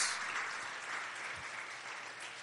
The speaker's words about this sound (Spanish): ¿Alguien está de acuerdo? ¿Le puede dar un aplauso al Rey de Reyes y Señor de Señores?